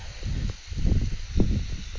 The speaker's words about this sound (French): Je passe devant une petite cascade qui est dans le village où j'habite. J'aime beaucoup passer devant cette cascade et aujourd'hui, bah, comme il neige, c'est magnifique et puis euh, vous l'entendez, tu l'entends sûrement en, fond.